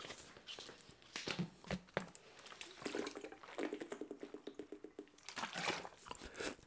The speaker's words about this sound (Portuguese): agora vou beber água, malta, portanto, dá tempo de vocês pesquisarem, até estou a ser vosso amigo.